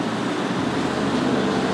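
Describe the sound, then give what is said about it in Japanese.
A continuous, fairly loud roar of road traffic as many cars pass by, with a steady rushing wash of engine and tire noise and no one speaking. “めっちゃ車来ますね”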